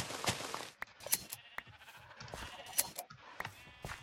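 Several short sheep bleats from a video game pop up over busy, clicky game noise, with sharp bursts scattered through the moment and no one speaking.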